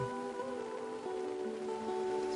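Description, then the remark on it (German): Rain falls steadily on a hard surface during the rainy season, a continuous patter with a faint droning hum underneath and no voices. “Es ist Regenzeit und die Hurricane-Saison steht direkt bevor.”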